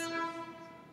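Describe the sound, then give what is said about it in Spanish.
A loud train horn blares in a sustained, multi-toned blast on a street in Escalante, slowly fading slightly as it continues, with faint outdoor street rumble underneath and no talking. “Y ese es el tren. Ese es el tren.”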